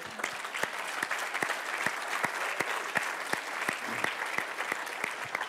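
An audience applauds a team for several seconds, a dense wash of clapping with individual sharp claps standing out in a fairly even rhythm, sustained at moderate loudness without talking.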